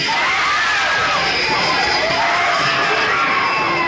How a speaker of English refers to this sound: This is not a trick. The screams you are hearing are the actual audience reaction to a sneak preview of Visiting Hours, a film so frightening you may never recover.